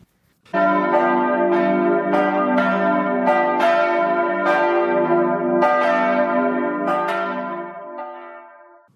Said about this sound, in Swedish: klockorna ringer in.